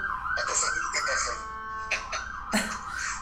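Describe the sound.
A wailing emergency siren in Miami Beach rises and falls steadily in the background, moderately loud and passing by, while a person talks over it.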